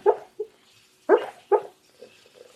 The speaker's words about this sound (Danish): Det er lyden af en hund. En hund, der drømmer.